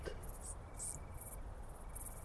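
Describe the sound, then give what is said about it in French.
Bush-crickets chirp in repeated high, buzzy bursts over a steady low rumble of very strong wind sweeping the Plateau de Cervelle in the Drôme, at 1200 metres altitude, at nightfall on 24 August 2018, the insects clear while gusts fill the background. “Decticelles dans le vent”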